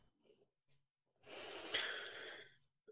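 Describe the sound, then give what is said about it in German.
A single long, heavy huff of breath pushed out through the nose, fairly loud, lasting over a second, with a faint sniff or click just before it and no talking. “Ähm, Schnauf.”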